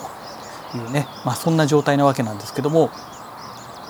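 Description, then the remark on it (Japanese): Faint bird chirps and twitters, recorded with a Zoom H3VR recorder and played back in the background, run steadily while a man speaks in the foreground, the birdsong soft and continuous beneath his voice. “まあ、この背景に Zoom の H3VR で収録したこの鳥の鳴き声とかいろんなね、えー、音の入ってるものを背景に流すことによってまあこの早朝にねあたかも収録しているかのような雰囲気になってくれたら面白いななんて、え思ってる次第でございます。”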